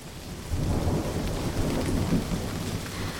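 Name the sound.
thunderstorm with rain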